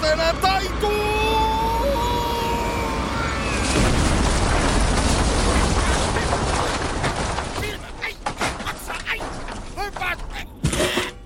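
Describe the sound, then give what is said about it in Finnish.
A metro train travelling at about 220 km/h through a built-up area is thrown about on the rails and derails, ending as a heap of scrap on the track embankment of a metro bridge: high metallic squealing gives way to a loud, sustained grinding roar, then breaks into scattered clanks and clattering debris before fading. “Suistunut metro on pelkkä kasa romua ratapenkalla.”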